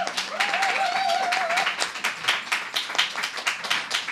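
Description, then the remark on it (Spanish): An audience breaks into sustained applause for Virginia Pérez Alonso, director of the newspaper Público, many hands clapping in a dense, steady patter for several seconds, with a short whistle rising over it near the start. “Un fuerte aplauso para Virginia Pérez Alonso.”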